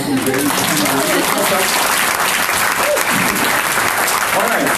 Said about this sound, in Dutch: dan begin ik eigenlijk ook altijd met een applausje vragen voor de persoon die standaard wordt vergeten